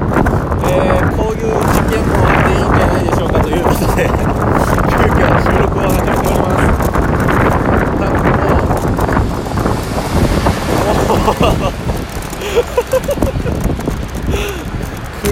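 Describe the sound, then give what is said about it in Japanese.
Loud, continuous wind buffeting a microphone with a rumbling roar beneath, recorded while riding a road bike along a road with passing cars and some rattling, while a person talks throughout. “車の音と多分なんかガタガタ言ってる音と風の音でもうめちゃくちゃ聞こえてないと思うんですけど”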